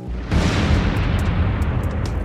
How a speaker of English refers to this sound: And this isn't just a crackling of a footfall on some tree branches. This is the crackling of lightning.